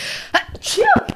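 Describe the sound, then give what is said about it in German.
A single loud sneeze with a sharp breathy burst and voiced release, preceded by a brief intake of breath. “Gesundheit.”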